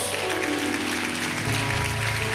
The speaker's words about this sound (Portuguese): Hoje, para a honra e glória do Senhor Jesus, a nossa igreja chegou em Lábrea, Manaus. Você pode aplaudir a Jesus por isso?